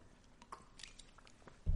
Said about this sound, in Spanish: perdón que bebo agua